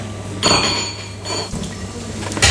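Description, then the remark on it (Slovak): Glass bottles and dishes clink and rattle together as a kitchen drawer in Turin is rummaged through to take out olive oil, with a few sharp knocks and a steady low hum underneath; the sounds are moderately loud, with no talking. “A z toho druhého šuflíka musíme ešte posunúť. Vyberiem olivový olej.”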